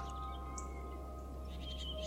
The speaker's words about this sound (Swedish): Men när vi till slut vågade oss upp igen hade solen gått upp och fåglarna kvittrade i träden utanför.